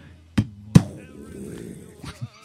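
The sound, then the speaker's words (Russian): A person voices a tank cannon shot with their mouth: two sharp, explosive bursts close together, a rumbling tail trailing off, then a couple of softer pops. “можно я озвучу выстрел танка, пожалуйста?”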